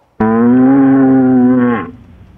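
An ox lets out a single loud, sustained moo lasting about a second and a half, a steady low droning bellow with rich harmonics that cuts off and fades quickly, with no talking.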